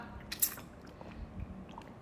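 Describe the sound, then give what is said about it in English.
Someone sips water, with quiet wet mouth sounds and a soft swallow. A brief clicky slurp comes early, then faint moist noises. No one speaks. “Just have a drink of water.”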